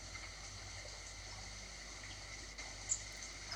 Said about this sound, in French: Écoutez le petit ruisseau qui passe à côté de vous.